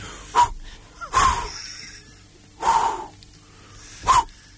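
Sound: imitated heavy panting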